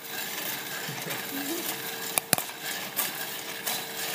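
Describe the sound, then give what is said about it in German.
Coffee beans cracking during the first crack of roasting, as they turn from green to brown: two sharp, bright pops in quick succession, then a couple of softer cracks, all over a steady hissing, whirring roar. “Also das erste Mal knacken die Bohnen, aber das geht schnell.”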